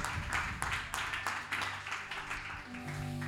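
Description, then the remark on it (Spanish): A church audience applauds for the Lord in a dense, steady wash of many overlapping claps. Sustained low musical tones come in toward the end. “Si es para el Señor, denle un fuerte aplauso.”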